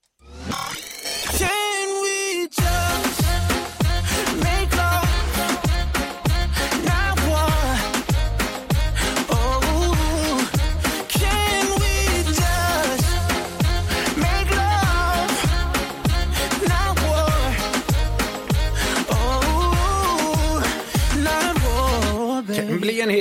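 A loud, polished pop song, placed 26th on the chart in Luxembourg, plays throughout, with a steady thumping beat, bright layered synths and a melodic sung vocal line, after a brief sparse intro.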